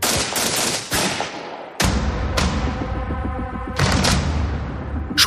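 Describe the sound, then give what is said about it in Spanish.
A volley of gunfire from a firing squad executing a condemned man on 17 January 1977 in the United States: sharp, loud rifle shots crack out in irregular succession, some nearly simultaneous, each leaving a ringing, reverberant tail, with no voices. “Gary fue condenado a pena de muerte y ejecutado por fusilamiento el 17 de enero de 1977”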